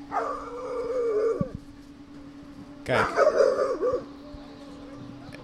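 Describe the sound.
A dog whines and whimpers in two drawn-out bursts with rising and falling pitch and a few yippy edges, separated by a short pause; a person briefly says a word.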